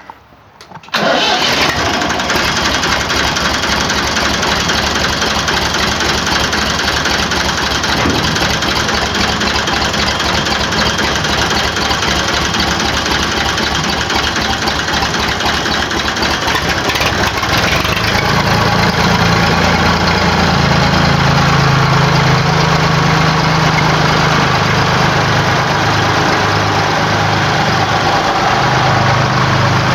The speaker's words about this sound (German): So, und weil der Traktor so schön klang, fahren wir jetzt nochmal raus und hören uns den einfach nochmal an.